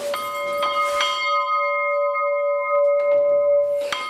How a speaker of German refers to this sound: Und da gab es frühmorgens immer eine Andacht. Wir haben die Glocke aus dem Bethaus.